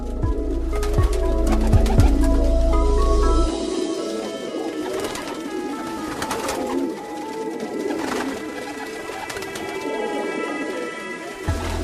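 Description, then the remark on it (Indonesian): Pigeons coo repeatedly, soft throaty calls rolling one after another, with a low rumble underneath during the first few seconds and no voices. “Merpati adalah burung yang tidak mempunyai empedu.”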